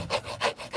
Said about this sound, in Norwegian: Det er lyden av meg som krafser på plast.